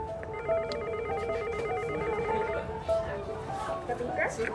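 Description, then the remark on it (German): An electronic doorbell at a lawyer's office in Bern rings with a steady, trilling buzz that holds for several seconds over constant background noise, a higher warbling layer pulsing above a lower sustained tone. “Wollen wir klingeln, dass wir nicht zu spät kommen?”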